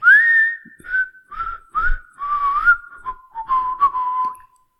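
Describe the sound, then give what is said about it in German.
A clear whistled pop tune, a bright melody of phrases that slide gently downward with short breaths between, fairly loud, with no talking. “Ich glaube beim Bergbauern den Song”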